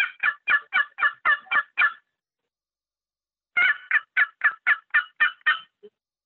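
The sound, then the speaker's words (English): A short turkey box call plays two bursts of rapid, evenly spaced raspy notes, first cutting and then small yelps, fairly loud with a short pause between the runs. “So I do a little bit of cutting and then you do some small yelps.”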